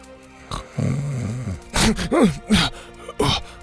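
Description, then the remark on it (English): A voice imitates a drawn-out, rumbling snore, followed by a few sharp, breathy snorts and a startled groan as the snoring man is elbowed and sits up disoriented, fairly loud with no words. “was snoring”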